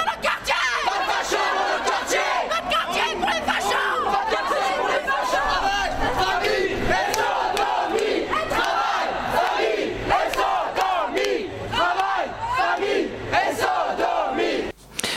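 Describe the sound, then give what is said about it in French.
A loud crowd of counter-protesters at a Manif pour tous march shouting and chanting together and tearing down marchers' flags, many overlapping voices yelling in a dense, continuous roar with rising and falling cries throughout. “certains ont donc continué à crier et chanter et à arracher même les drapeaux euh, des gens de la manif pour tous.”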